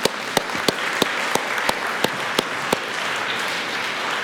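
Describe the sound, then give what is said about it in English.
A crowd applauds steadily for a group being celebrated, a dense wash of clapping with a few sharper claps standing out in the first few seconds before it settles into an even, sustained roar. “Let's hear for these guys one more time.”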